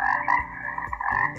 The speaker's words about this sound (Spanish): la rana